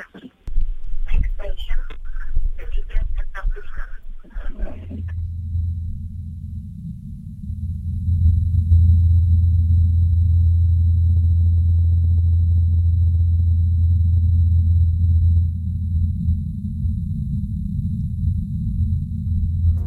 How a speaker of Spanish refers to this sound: Como la atmósfera es más fina, se oye más bajito y más raro, como lejano, a pesar de que esté cercano. Y lo podemos oír de verdad porque se ha hecho. La NASA ha puesto un dron helicóptero volando en Marte y ha grabado el sonido.